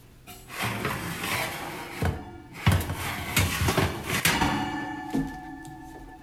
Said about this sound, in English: Did you guess it? It's the sound of pulling out an oven rack.